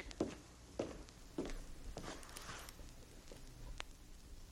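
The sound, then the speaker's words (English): Steady footsteps tap across a hard floor at an even walking pace, about eight sharp steps in a row, moving from left to right on a 1957 RCA stereophonic demonstration record, with no one speaking. “It's the sound of a person's footsteps going from left to right”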